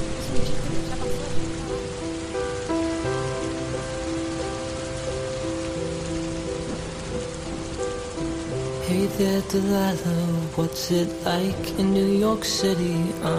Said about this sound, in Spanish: ahora me imagino que está lloviendo torrencialmente. Y además también me imagino que tu voz empieza a ir en fade out mientras te enojas porque pongo la tormenta.